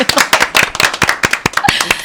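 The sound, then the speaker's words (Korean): A burst of clapping from several people, with quick, uneven, overlapping sharp claps that stay loud and steady for about two seconds. “박수 한번 보내주세요.”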